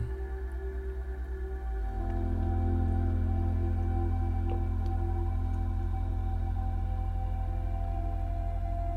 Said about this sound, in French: Il y a la musique, bien sûr, la musique de cette méditation guidée.